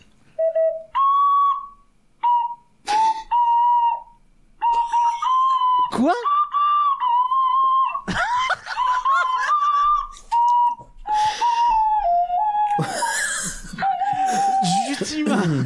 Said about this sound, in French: puisque je vous ai promis deux chansons à l'ocarina. Voilà la oh, deuxième et celle-là en plus euh, autant les Simpsons j'avais un genre de j'avais un genre de truc à suivre de tuto pour le faire là j'ai fait tout à l'oreille accrochez-vous